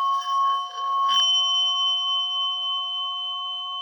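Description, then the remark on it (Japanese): A Japanese orin (Buddhist singing bowl) is rubbed into a sustained ring, with a brief scraping onset giving way to a steady, pure metallic hum that holds evenly and lingers without fading. “おりんをこすって鳴らしてみた”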